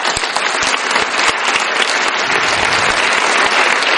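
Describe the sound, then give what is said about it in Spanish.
Sustained applause from a crowd, dense rapid clapping filling the whole stretch at a steady, loud level without letting up. “Un aplauso para vosotros.”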